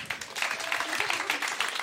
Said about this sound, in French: Ouais Mais bravo, on peut l'applaudir